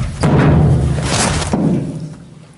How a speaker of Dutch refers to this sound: Je hoort aan het eind uh, de deur dichtklappen. Klopt. Eh, in jullie gezicht.